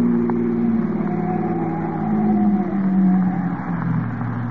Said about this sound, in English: Here we are. I'll make a U-turn.